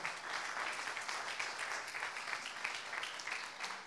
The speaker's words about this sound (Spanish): tal vez denle una ofrenda de palmas al rey.